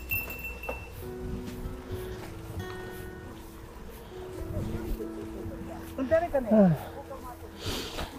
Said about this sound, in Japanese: ちょうどね、鈴も今つけてて、まあ、自転車で鈴やっぱり便利で、自分はトリブルボトルさんのベアベル、この音が結構好きっすね。